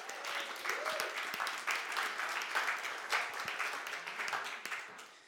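A crowd applauds steadily, many hands clapping in a dense, crackling wash that holds at an even moderate level for several seconds before easing off at the end.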